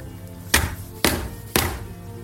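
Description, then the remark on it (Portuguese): Three firm knocks on a wooden door, evenly spaced about half a second apart, each a sharp thud with a short ring-off, with no voices. “As duas já tinham espiado as rocas a porta ouviram-se três pancadas.”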